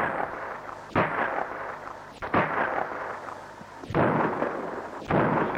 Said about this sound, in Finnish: Ne ampuvat.